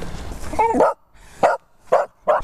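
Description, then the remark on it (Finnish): A dog barks excitedly in a forest in short bursts, four sharp yaps spaced about half a second apart, fairly loud, with a brief whiny pitch rise before the first. “Tää, tää kun tulee koiran kanssa metsään, sitten välillä tulee hepuli ja sitten jos lähtee eteenpäin, tää paikalle jääminen, se ei, se ei tota, niin, sovi nyt ollenkaan.”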